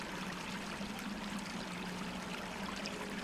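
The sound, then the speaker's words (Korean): A stream flows steadily, its continuous bubbling wash of water holding an even, moderate level throughout with no voices present. “갈증은 시냇물로 달랬다.”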